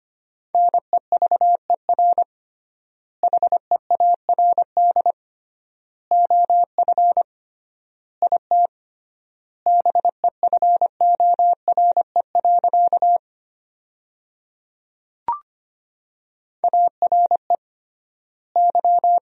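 Rapid Morse code beeps at 25 words per minute in a steady pure tone, quick dots and dashes forming sentences from the 400 most common words, with triple-length pauses between words, plus one brief click partway through. No voices.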